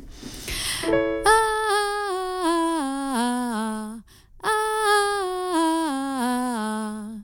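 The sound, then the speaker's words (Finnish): A solo voice sings a melismatic riff on an open "ah" vowel in even eighth notes, accenting every second note with the first unaccented, stepping down quickly through several notes, then repeats the run after a short breath. Clear and fairly loud. “Eli nyt aloitetaan painot, painotus, eli aksentti toiselta ääneltä. Eli ykkönen ei ole aksentoitu, eli kuulostaa tältä.”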